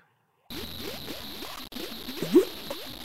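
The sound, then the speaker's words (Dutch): Thick mud bubbling in a mud pool on Earth, a sound carried aboard the Voyager spacecraft; a steady run of soft gloopy pops and glugs, with one louder burst near the end over a constant faint hiss. “We hebben gewoon het geluid van een modderpoel hebben we de ruimte ingeschoten.”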